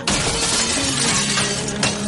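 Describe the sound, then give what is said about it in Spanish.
A loud crash as the glass pane of an agency's door is smashed with a baton, bursting into a sustained bright spray of shattering and tinkling shards that continues for about two seconds, with no voices. “Se acerca a la puerta de la agencia y rompe el cristal con la porra.”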